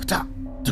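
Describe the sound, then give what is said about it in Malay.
A voice imitates the sound of someone hopping with two short, sharp syllables, "kecak, kecak", about half a second apart, spoken fairly loud with a brief pause between the beats. “Kecak Saya dengar bunyi seperti orang lompat Katanya And then dia jalan kiri kanan Asal macam dia jalan sirik kaki eh”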